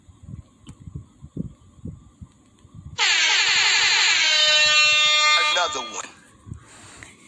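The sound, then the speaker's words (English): A loud, sustained air horn blast rings out for about three seconds, harsh and buzzing with dense harmonics, after a man talking and before his voice resumes. “Let me sound the alarm.”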